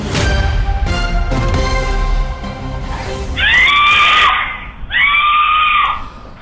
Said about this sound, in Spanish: Son los gritos desesperados de una madre que está buscando auxilio, ayuda para su hija quien acaba de ser herida gravemente por arma de fuego cuando transitaba por una autopista de la ciudad de Houston.